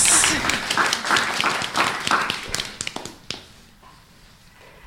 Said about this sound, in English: Yes, applause.